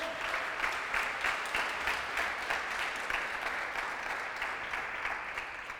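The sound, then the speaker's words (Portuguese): Sustained applause from an audience, a dense steady wash of many hands clapping at once, fairly loud and continuous for several seconds before easing slightly at the end, with no talking. “Ah, dá um aplauso a ele, pelo amor de Deus.”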